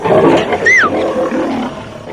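lion roaring

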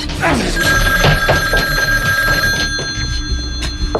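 telephone ringing

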